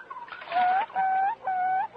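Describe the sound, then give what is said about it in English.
A loon calls in three drawn-out, wavering hoots, each rising slightly at the end, loud, over a faint background of the Florida Everglades swamp, with no one speaking. “Now I know why they say crazy as a loon.”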